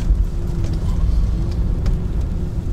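A car driving, heard as a steady low rumble of road and engine noise with a faint humming tone and a few light ticks, continuous throughout.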